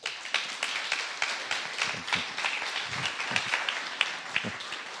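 An audience applauds steadily, many overlapping hand claps forming a dense, bright patter with sharp individual claps popping out, sustained at a fairly even level throughout without any talking.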